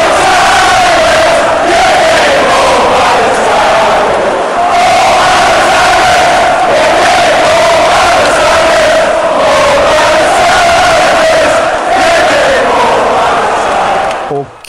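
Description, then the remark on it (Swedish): A large crowd of football supporters chants the terrace song 'Mauled by the Tigers', an exclusive variant of a common melody, in unison: a loud, sustained melodic roar with a steady rising-and-falling tune that carries on without a break. “Ja, men en, som är, alltså en melodi som inte är exklusiv, men som en, en, ett, en variant som är exklusiv, det är ju Mauled by the Tigers.”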